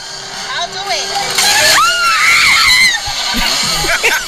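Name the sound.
woman screaming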